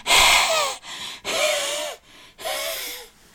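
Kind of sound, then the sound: vocal imitation, imitated out-of-breath panting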